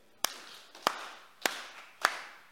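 A group claps in unison along with a speaker, four sharp, evenly spaced claps in a steady beat, each with a short ringing tail, keeping rhythm for reciting numbers about how the Bible is organized. No one speaks.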